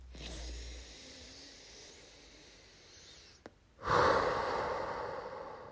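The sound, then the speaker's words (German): A long, soft, airy deep breath drawn in, a brief pause, then a louder, rushing exhale, with no talking. “Haltet mal inne, atmet mal tief ein, mit mir zusammen vielleicht einfach mal jetzt.”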